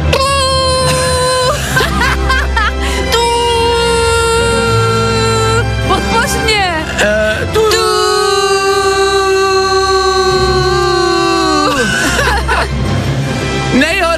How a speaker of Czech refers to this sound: Hashtag fajn trouba, označte fajn rádio a pojďme všichni teď společně prostě zatroubit a pojďme všem těm lidem poděkovat právě teď. Já to odpočítám, jo? Za tři, dva, jedna a teď pojďme všichni zatroubit. Teď!